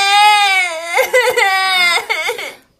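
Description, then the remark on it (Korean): A young girl, a younger sister, sobs while reading a Kongjwi Patjwi storybook, in a long, high wavering wail that breaks into shaky, catching gasps and hiccuping cries near the end, loud, with no other sounds around it. “어, 너 콩쥐 파티 책 읽다 우는 거야?”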